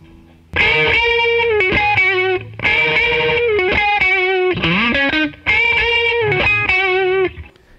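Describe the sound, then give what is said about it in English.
An electric guitar played through a King of Tone overdrive pedal, with its second, more obvious overdrive side switched on for leads, plays a lead line in three loud phrases with brief gaps, sustained distorted notes, bends and slides, with no talking. “I also turn on the second part of it, which is like a more uh, very obvious kind of overdrive, and um, I use that for a couple leads, and um, it sounds like this.”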